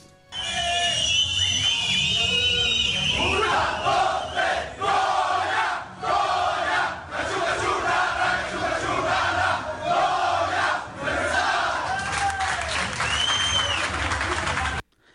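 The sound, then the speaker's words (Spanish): UNAM Pumas football players celebrate in the locker room after a match: many voices shout and chant together, loud and continuous, with cheers, whoops and scattered clapping rising and falling throughout. “Si te parece, vamos a escuchar algo de lo que se vivió ahí en, en la celebración de los Pumas.”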